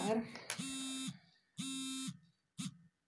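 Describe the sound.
An electronic alarm buzzer sounds: two loud, harsh half-second buzzes with a short gap, then a brief third blip. A voice speaks briefly just before the first buzz.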